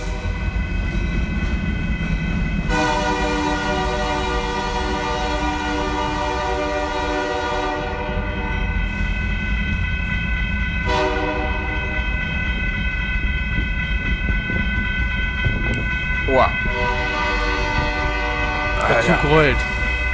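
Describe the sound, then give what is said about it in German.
A loud American train rumbles past, its horn sounding in long sustained blasts over the steady low roar of the wheels, with a brief higher squeal near the end. “Aber laut hier. Ja, ganz schön Alarm hier. Na, was ist denn hier los mit dem Zug, mit den Amerikanern”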